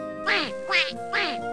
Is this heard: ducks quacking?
yes